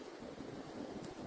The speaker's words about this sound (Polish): O, wiatr szumi wiatr?